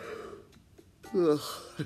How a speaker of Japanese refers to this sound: すいませんあくびが。